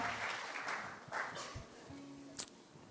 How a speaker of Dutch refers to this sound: En eh, ik wil de band bedanken. Geef deze mensen een geweldig applaus. Thank the band. Give them Elke keer staan ze er weer. Dank jullie wel. Here every time.